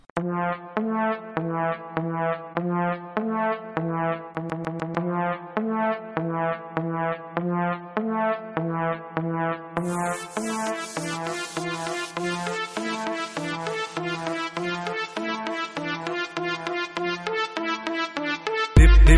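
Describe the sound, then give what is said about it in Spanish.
An upbeat song plays loudly, starting with a bouncy, repeating synth melody and rhythm; about halfway through, crisp percussion and cymbals join in, filling out the beat with no voices heard. “ahora mismo vamos a escuchar una canción de …”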